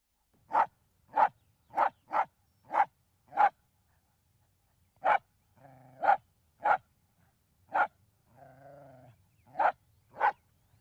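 A dog barks loudly, a quick run of six sharp barks, then more spaced-out barks with a couple of whiny, drawn-out whimpers between them. No one speaks.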